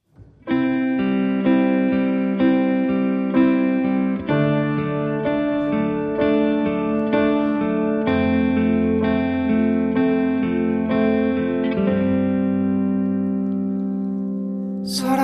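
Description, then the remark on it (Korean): A live performance of a new song opens with sustained, effect-laden electric guitar chords shifting every few seconds, steady and fairly loud with no vocals yet, fading slightly at the end. “감사하게도 오늘 라이브로 준비를 해주셨다고 합니다.”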